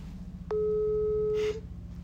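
A single steady ringback tone, a plain mid-pitched beep lasting about a second, sounds over a faint low hum as an outgoing phone call rings. No one speaks.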